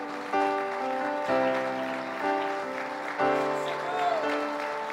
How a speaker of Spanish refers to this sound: Póngase de pie, hermano, de un fuerte aplauso de alabanza al Señor.